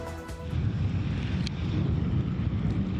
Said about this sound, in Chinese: 强风夹带大片雪花呼啸而过，放眼望去，全是白茫茫的一片。